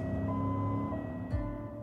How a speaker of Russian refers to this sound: и пока она едет в нашу сторону, звук кажется выше. Как только машина проезжает – волны звука становятся длиннее, и нам кажется, что звук стал ниже. А тем, кто едет в машине, те уверены, что у них сирена работает нормально и звук не поменялся вообще.